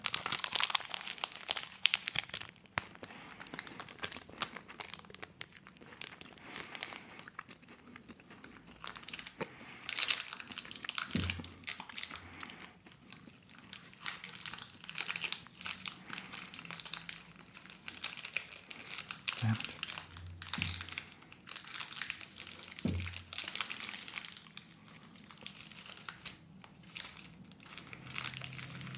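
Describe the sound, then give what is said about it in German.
A chocolate bar wrapper crinkles and crackles almost continuously as the rest of the bar is eaten, in irregular bursts of crisp, bright rustling that rise and fall in loudness for about half a minute. “Jetzt muss ich ein bisschen näher ans Knisterpapier ran, sonst sau ich mir hier alles ein.”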